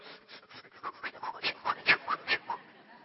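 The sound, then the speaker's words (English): A person imitates rapid, shallow panting breaths, like someone doing a relaxation breathing exercise far too fast, a quick steady run of a dozen or so puffs that grow louder toward the middle, with no talking. “You're going, Wait, this isn't labor, dude, you know? You got to slow down. You're just taking a breath.”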